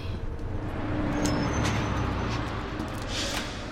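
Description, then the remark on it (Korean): A bus rumbles with a steady low engine drone, broken by a couple of sharp air-brake hisses as it halts to drop off a passenger on a paved road after crossing a bridge over the Han River, and then pulls away, with no voices. “버스는 한강의 기적이 만들어낸 다리를 지나 반듯하게 잘 닦인 도로에 춘단을 내려주고 떠났다”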